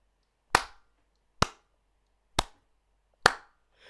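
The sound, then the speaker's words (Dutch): Slow applause of four single, sharp claps, evenly spaced just under a second apart, each crisp and loud with a brief ring-out, and no voices in between. “Het, het, het doek gaat bijna applaus geven.”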